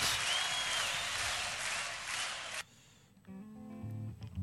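A dense wash of crowd applause fills the first two and a half seconds, then cuts off abruptly, followed by a brief lull and the entry of sustained musical tones.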